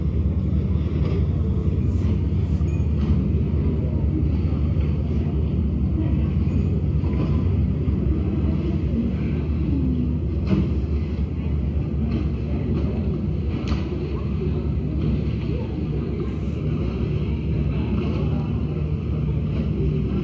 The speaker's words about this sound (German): Du läufst an einem Kanal vorbei und hörst wie die Gondoleure an dir vorbeifahren.